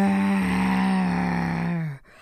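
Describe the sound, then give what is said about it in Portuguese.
A person imitates the growl of a grumpy bear woken from sleep at the back of a cave in a told story: one long, low, rough vocal rumble sustained for about two seconds, then cut off into quiet. “rosnou o urso rabugento.”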